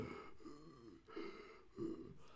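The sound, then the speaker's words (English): A person imitates asthmatic wheezing, producing three strained, whistling breaths in a row, each rising and fading, with no talking. “So, people sort of wheeze a bit, like.”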